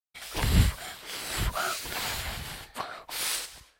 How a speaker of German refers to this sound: Man hört euren Atem, klar, euer Pusten, aber man hört eigentlich nichts von dem Gemüse, oder?